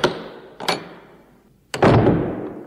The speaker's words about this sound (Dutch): Nou, je hoort het aan die deur. Die gaat niet makkelijk open.